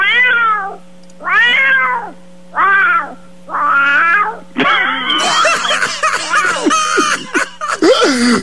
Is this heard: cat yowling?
yes